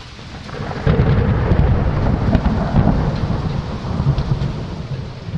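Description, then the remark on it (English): Heavy rain pours steadily in a dense, hissing wash, joined after a moment by a deep, continuous rumble of thunder underneath. No voices, just the storm filling the space. “I start off with my ideas and what makes a good sound for like rain.”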